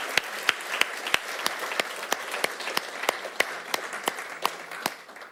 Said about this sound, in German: Hey, Tottenauting, ihr seid fantastisch. Wir schicken euch einen Applaus.